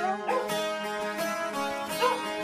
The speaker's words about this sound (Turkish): Bu köpeklerde bu gece asabım bozdu yahu.